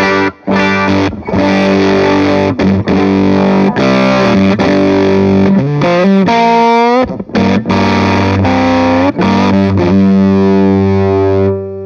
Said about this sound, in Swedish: jag tror att det är den … eller … fuzzface